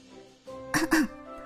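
A short cough or throat-clearing, two quick rough bursts in succession, heard on its own against a quiet background with no talking.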